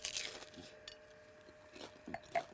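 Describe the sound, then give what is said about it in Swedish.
Crisp crunching from someone on a date biting and chewing food in small, irregular bites, a few sharper crackles standing out against a quiet background with no talking. “Och nu till exempel tänker jag att jag ska käka så här fint för att vi är på en dejt. Små tuggor, jag har mm.”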